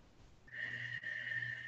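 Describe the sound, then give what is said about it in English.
A deep breath drawn in through the nose and pushed out fully through the mouth, a steady airy rush with a faint whistling edge, heard alone with no talking and a brief pause midway. “And exhale fully through the mouth so you can hear your breath.”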